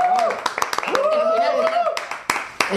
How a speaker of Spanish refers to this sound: Hombre, pues vamos a dar un aplauso porque está bien. Un aplauso. Está bonito